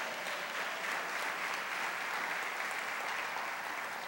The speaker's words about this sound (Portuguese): Aplauda ao Senhor bem forte.